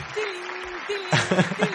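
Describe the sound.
A studio audience applauds in a steady, dense patter of clapping, with a low hum underneath; partway through, voices begin talking over the fading applause.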